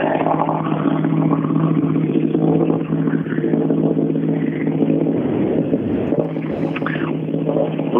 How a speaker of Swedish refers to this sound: Nu är det intressant, för nu rullar Ledin ut från TK. Nu ska vi lyssna på bilen. Om vi har, um, vi har fått till ljudet på den där. Om, det, om alla burkar snurrar som det ska, om allt är bra. Nej, det Skit också. Inte bra för Ledin.